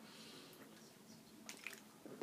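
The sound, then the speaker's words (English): Someone takes quiet sips of water, with soft wet gulps and a few small liquid clicks over a faint background hum; no one speaks. “Excuse me, I got to get some water.”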